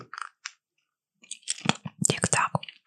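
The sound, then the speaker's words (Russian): Hard caramel candy clicking against teeth: a few scattered, sharp clicks, a short pause, then a denser run of crisp clacks mixed with wet, crunchy mouth noises. “Ты вот какую-то карамельку гоняешь э, по зубам.”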